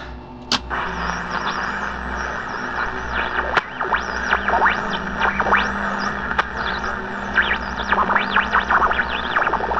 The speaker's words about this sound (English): Try to tune into that, then run a full sweep of AM and FM frequencies. We need to know if we're not completely cut off.